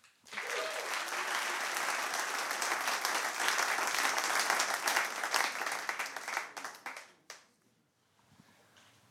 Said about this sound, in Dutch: Mag ik een applaus